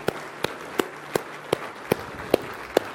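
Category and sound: crowd, audience hand clapping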